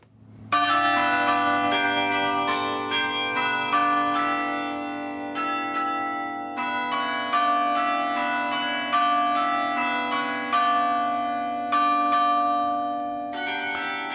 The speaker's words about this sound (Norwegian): Ja, vi hører eh, rådhusklokkene i Oslo i bakgrunnen her.